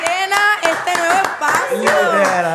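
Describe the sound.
Audience applause again, with sharp, fairly regular claps sounding over loud cheering and voices, the crowd noise sustained and energetic for the whole stretch.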